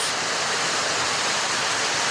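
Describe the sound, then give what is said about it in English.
A dense, steady hiss of heavy pouring rain fills the whole stretch, loud and unbroken, with no voices over it. “Th- that's crazy, insane how much it is pouring down rain.”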